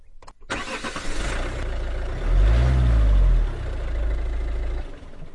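The engine of the 'colchomóvil' cranks and catches, then settles into a steady low rumble that swells as it revs up briefly before easing back as it pulls away, setting off for Villar del Yermo. No one speaks.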